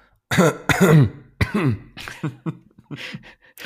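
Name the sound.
cough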